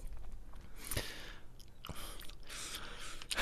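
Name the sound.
chewing candy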